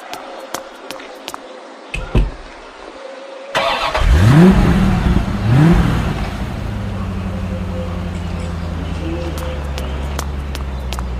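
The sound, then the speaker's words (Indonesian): A car engine cranks and catches, then revs up twice with rising pitch before settling into a steady idle rumble that continues to the end. “Juragan, mobilnya sudah siap.”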